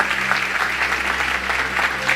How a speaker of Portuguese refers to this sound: Vamos aplaudir nossos voluntários, gente. Glória a Deus. Coisa linda.